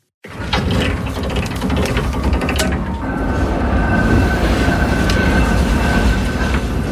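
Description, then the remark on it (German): A funicular railway car in the Freiburg region rumbles along its track, loud, with a dense rattle of clicking, grinding gears giving way to a steady mechanical roar and a faint whine. No voices. “Auf der Fahrt mit dem Füni”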